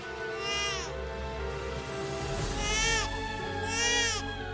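A newborn baby girl cries just after birth in a hospital delivery room, three high, wavering wails, each rising and falling, with short pauses between them over a steady low background hum.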